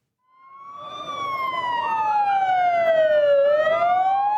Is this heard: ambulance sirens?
yes